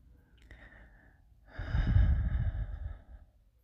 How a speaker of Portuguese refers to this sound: Sente minha voz no pé do seu ouvido, minha respiração ofegante.